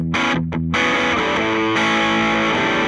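A heavily distorted electric guitar amp, recorded with an angled microphone, plays loud, sustained chords with a few quick stabs at the start, with a thick, saturated amp tone and no voices.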